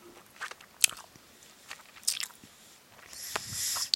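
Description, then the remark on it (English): Close-up chewing of sticky grape-flavored candy, with irregular wet smacks and clicky snaps near the mouth, building into a longer squishy, tacky smacking toward the end. No one speaks. “I'm really chewing close.”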